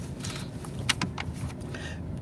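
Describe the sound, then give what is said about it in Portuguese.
A woman parking her car out front, maneuvering at low speed: a steady, muffled engine rumble with a couple of brief mechanical clicks, with no one talking. “Ajudar uma senhora estacionando o carro aqui na frente, que não ia dar.”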